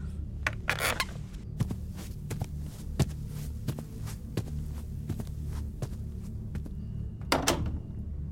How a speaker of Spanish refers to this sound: Pero antes, fíjate que esté bien cerrada la puerta.